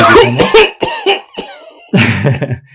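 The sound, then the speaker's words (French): A loud coughing fit from someone choking: a rapid run of harsh, raspy coughs, a brief pause, then another burst of several hacking coughs, with no talking. “tu vas pourquoi tu tousses Je suis en train de s'étouffer.”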